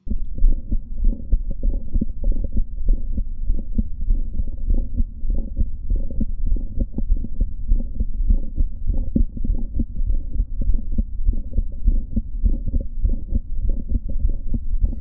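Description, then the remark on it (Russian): Heart auscultation with multiple systolic clicks: a rapid, steady run of muffled low thumps, each beat carrying extra sharp clicks, continuous with no voices. “Например, это множественные щелчки в систолу.”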